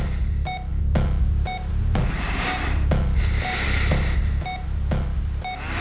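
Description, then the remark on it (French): Steady electronic beeps from medical monitoring equipment in a darkened hospital room repeat about once per second, short high tones over a continuous low machine hum, with a soft airy whoosh rising and falling beneath them, alongside very distinct breathing. “En plus du petit bruit des appareils médicaux, il y avait le bruit d'une respiration très nette”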